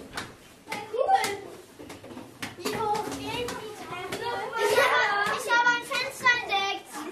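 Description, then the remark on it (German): Several children's voices chatter and call out together in an empty church with no cupboard, furniture, curtains or carpet, their sounds smeared and lingering in a long, hollow reverberation. Bright, overlapping voices rise and fall throughout. “In der Kirche gibt es keinen Schrank, keine Möbel, keine Gardinen, keinen Teppich. Ach so, jetzt weiß ich. Darum klingt das hier so anders.”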